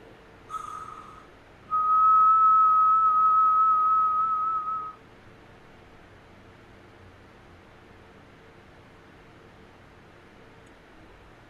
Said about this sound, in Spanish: Hay un silbido en la oscuridad. Es imperceptible. Porque normalmente cuando es imperceptible es porque están cerca de nosotros. Están ahí.